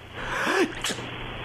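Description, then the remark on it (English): A single small sneeze: a brief rising voiced intake followed by a quick, sharp puff of breath, fairly soft against a steady hiss of background noise. “It's just nothing but sneezing now.”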